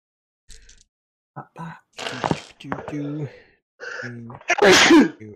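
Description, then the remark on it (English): A loud sneeze from a man bursts out near the end, following a few seconds of indistinct voices and short vocal sounds. “Bless you, kind sir.”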